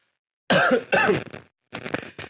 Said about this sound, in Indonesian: aduh aduh batuk aduh ada obat batuk nih